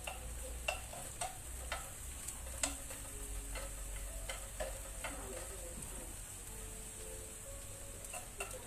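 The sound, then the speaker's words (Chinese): Steady sizzling of chicken cutlets frying in a pan, a continuous crackling hiss punctuated by sharp clicks and taps of utensils scattered throughout, with no voices. “还有空间，我们可以再把另外一块把它煎了。”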